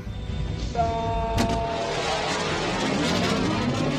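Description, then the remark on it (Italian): A sonic boom from Maverick's jet flying at Mach 1: one sudden sharp bang bursts through a steady roaring rush of noise, just after a brief high whistling tone, and the loud roar carries on afterward. “appena sentirai il bang sonico, prendi conigliastro e salta”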